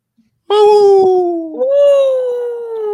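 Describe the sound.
A person imitates a coyote howl for the Coyotes hockey team: one loud, sustained wavering tone that briefly breaks partway through, then carries on steadily to the end.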